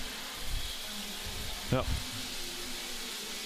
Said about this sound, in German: man hört es im Hintergrund. Ja, es regnet wieder sehr stark. Ähm, Mittlerweile tropft es auch hier drin von oben.